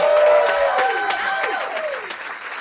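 A crowd applauds and cheers loudly, with dense clapping and rising, sliding whoops and shouts layered over it, sustained throughout and fading slightly toward the end.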